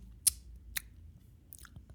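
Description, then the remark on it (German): A person imitates the lip smacking people make while talking: three or four wet, sharp mouth clicks spaced unevenly, the first one loudest, over a faint low background hum with no talking. “Schmatzen beim Reden.”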